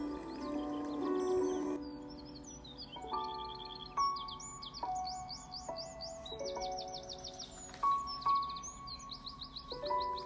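A small bird chirps in quick, bright bursts, repeating trills and tweets throughout, fairly close, over a steady soft background of sustained musical tones.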